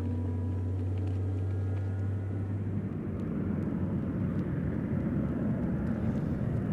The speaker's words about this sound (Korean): 이제 저희 비행기는 착륙합니다.